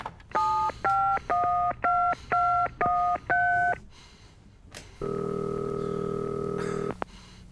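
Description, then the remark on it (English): Seven quick, clear touch-tone beeps as a phone number is punched in, followed after a short pause by a steady buzzing ring tone on the line that cuts off with a click. “Jesus, I gotta call Elaine!”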